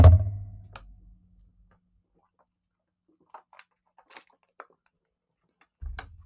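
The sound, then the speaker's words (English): Faint, scattered clinks of glass jiggling, a handful of light irregular ticks, framed by a dull low thump at the start and another near the end. No voices. “You hear that glass jiggling.”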